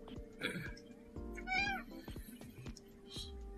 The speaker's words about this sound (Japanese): あ、猫。え猫サウンドが聞こえましたけど。はい。えっ、ー、とね、翻訳すると、構え嘘嘘やろ遊べと。